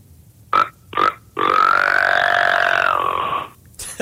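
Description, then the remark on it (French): A person imitates the grunt of a rutting buck deer (chevreuil), the call a buck in rut makes when approaching a female or another male: two short, throaty grunts followed by one long, drawn-out guttural grunt lasting about two seconds, fairly loud. “Euh, le grunt du chevreuil, c'est le boc en tant que tel qui est dans le rut euh, à l'approche euh, de à l'approche de la femelle ou à l'approche d'un d'autre autre mâle.”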